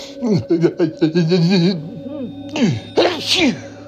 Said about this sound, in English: Oh, I think I'm gonna sneeze.